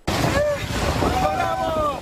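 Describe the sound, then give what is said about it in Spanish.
Migrants splash into the water of the Rio Bravo as they cross to United States soil in intense heat of over 100 degrees. A steady loud churn of moving water, with excited voices shouting and calling out over it. “Tan pronto vieron el río Bravo, se lanzaron al agua, que lo refrescó ante el intenso calor de más de 100 grados, pero que además significaba su paso a la esperanza y el sueño americano.”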